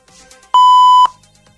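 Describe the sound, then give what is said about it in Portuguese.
A single steady censor bleep, programmed to sound after the word 'café' is said, a pure high tone about half a second long, loud and abrupt, starting and stopping sharply between quieter stretches of faint background murmur. “Fala, a palavra café tá programada já para ter um apito em seguida.”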